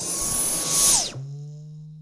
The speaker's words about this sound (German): Ich mag übrigens das Geräusch, wenn man den Staubsauger wieder ausschaltet.